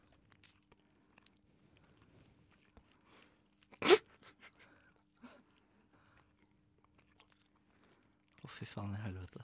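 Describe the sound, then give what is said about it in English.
Wet chewing of a whole cheeseburger eaten by one person, with soft smacking and a sharp crunchy bite partway through, followed by a voice starting to talk at the end. “Jeg vil I will hereby starte begin by eating this whole cheeseburger by myself helt alene.”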